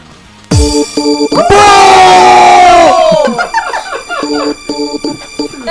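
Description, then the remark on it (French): A concert crowd bursts into loud, shrill screaming that holds for about two seconds, then breaks into scattered shrieks and cheers, with steady tonal notes sounding underneath. “Vous allez dans cet ordre précis. Crier Puis perdre le contrôle de votre corps dans 5, 4, 3, 2, 1.”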